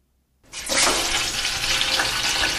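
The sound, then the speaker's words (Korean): A loud, steady sizzle of chicken frying in hot oil starts abruptly after a brief silence and holds, with dense crackling and popping like heavy rain, with no voices. “그래서 이것의 맛만 보고 브랜드를 구별해낼 수 있는 치물리에가 생겨날 정도로 마니아들이 많죠.”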